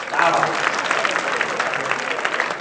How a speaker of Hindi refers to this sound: तो ताली बजा के पुनः स्वागत करें